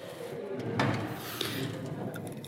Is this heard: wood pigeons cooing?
no